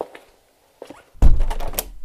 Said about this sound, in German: bitte schließe die Tür.